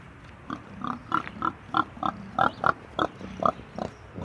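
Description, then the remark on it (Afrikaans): A run of short, rhythmic grunts from pigs in a muddy pen after rain, about a dozen in quick succession, moderately loud over a low rumble of background noise, with no one talking. “Jy sien varkies regtig mal oor modder, né?”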